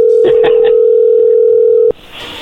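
A phone number being dialed: a steady, loud dial tone hums while a few quick key tones blip over it, then the tone cuts off abruptly into a soft line hiss.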